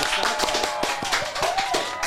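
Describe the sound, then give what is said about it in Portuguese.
A small studio production crew applauds steadily after a musical performance, brisk overlapping hand claps filling the whole moment at moderate loudness, with no one speaking. “Vamos aplaudir.”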